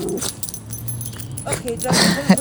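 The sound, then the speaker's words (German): A dog gives a few short barks and whimpers over a couple of seconds, with some light rustling and jangling around it. “Ganz kurz, hier ist ein Hund. Ah, gerade ein anderer Hund und ich musste ganz kurz schauen, äh, dass quasi mein Hund sich nicht vor Angst in die Hose macht.”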